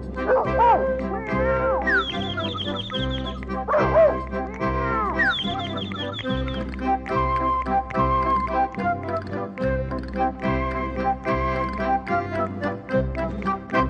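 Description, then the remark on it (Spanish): Bouncy music with a steady bass beat carries voices imitating dogs barking and cats meowing, the yips and drawn-out, gliding meows repeating a few times over the tune. “Los conejitos brincan y saltan, en los campos los pájaros cantan y los perritos ladran guau guau. Los gatitos te dicen miau.”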